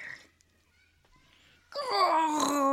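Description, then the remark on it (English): After a near-silent stretch, a voice abruptly lets out a loud, sustained, harmonic screech, imitating the howling scream of a Star Wars TIE fighter roaring past. “It sounded like a Tie Fighter”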